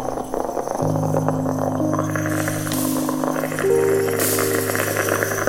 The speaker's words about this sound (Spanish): Estoy preparándome un café.